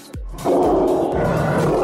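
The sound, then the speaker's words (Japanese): A young lion cub's roar, loud, starting with a sharp low onset and then holding as a sustained, raspy, throaty bellow for over a second with no voices. “その子供のまだライオンなんですけれども、はいはい、ただなんですねただはい余剰動物っていう言い方が業界の中ではあるんですけれども”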